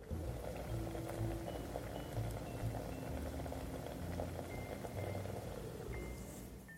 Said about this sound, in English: Can you hear that simmering just starting to happen?